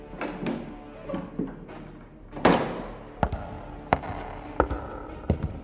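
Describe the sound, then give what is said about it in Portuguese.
A heavy church door opens in the main hall amid a series of wooden thuds and sharp latch-like clacks, one louder thump midway, with no voices present. “quando chega no salão principal, a porta da igreja se abre.”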